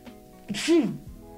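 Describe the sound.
A single sharp sneeze, a quick breathy burst with a voiced 'choo' that ends abruptly, with a faint background murmur.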